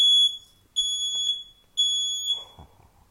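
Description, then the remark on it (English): A smoke alarm beeps three times in a steady rhythm, each long, shrill tone loud. A brief low rustle follows the last beep. “Sorry about the smoke alarm.”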